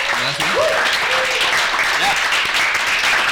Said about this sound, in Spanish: Fuerte el aplauso.